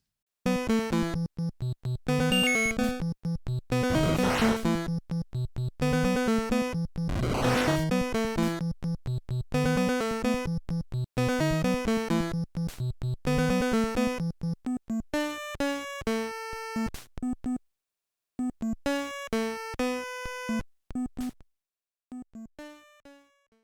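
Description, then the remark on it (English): An 8-bit theme tune from an NES-era video game based on a film plays alone: buzzy square-wave notes in a quick, bouncy melody with sweeping noise bursts early on, thinning to sparser staccato notes before cutting off. “Now, this could have been tough for folks that are not familiar with the film that this game is based on, because there's a very particular theme song embedded in that kind of 8 bit sound clip, because this is from the NES era”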